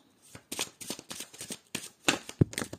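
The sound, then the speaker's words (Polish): Playing cards being shuffled for a reading for the Virgo sign, in a quick run of crisp, papery riffles, ending in a couple of sharper slaps as cards spill out. No voices are heard. “O, karty oczywiście poleciały.”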